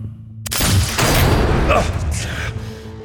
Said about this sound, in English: The first bullet hits me in the chest, sends me staggering back a step. The next one cannons into my side, drops me to my knees.